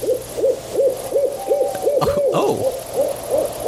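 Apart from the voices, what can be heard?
owl hooting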